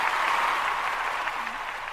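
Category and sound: sound effect, applause sound effect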